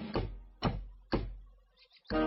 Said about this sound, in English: Knock, knock, knock. Who's that knocking at our little front door?